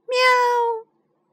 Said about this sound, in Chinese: 小猫既不吃酸的干草，也不喜欢那个味道，只是叫喵喵。